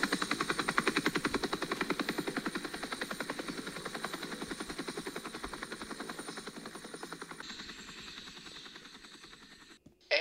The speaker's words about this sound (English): Sorry, can't hear you. Copter's too loud.